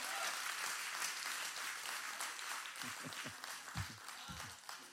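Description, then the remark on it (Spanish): An audience bursts into sustained applause, a dense, steady wash of many hands clapping at once, with a few voices calling out faintly beneath it toward the end. “Ah, dale un aplauso, vale un aplauso, vale un aplauso.”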